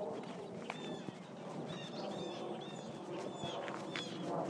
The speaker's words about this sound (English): It's a loud bird. Of course, they probably think we as humans are loud too.